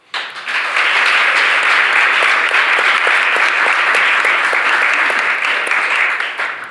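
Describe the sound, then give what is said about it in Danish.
A sustained round of audience applause for two actors, many hands clapping densely and steadily for several seconds at a loud level before tapering slightly at the end, with no one speaking. “og jeg synes lige, så man kan høre, der publikum på, at vi lige skal give de to en hånd først og fremmest.”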